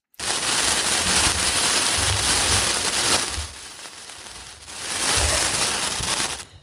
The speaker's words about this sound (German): Wunderkerze.